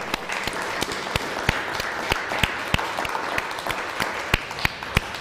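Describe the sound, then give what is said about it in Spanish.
A crowd applauds steadily in celebration of Sukkot on a Shabbat, a dense wash of many hands clapping with sharp individual claps popping out above the mass at irregular moments, sustained at full strength throughout. “Fuerte aplauso.”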